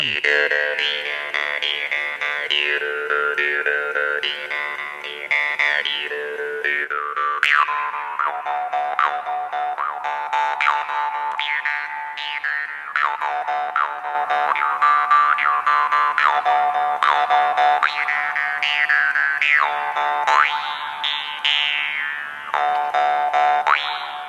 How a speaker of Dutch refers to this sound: Een soort mondharp of niet? Ja, dit is de mondharp.